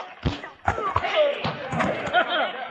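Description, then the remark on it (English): A flurry of heavy punches knocks a man out: six or so dull thudding blows in uneven rhythm, with grunts and strained vocal sounds mixed in between the impacts. “Well, you knocked him colder than a wolf's howl at Christmas time,”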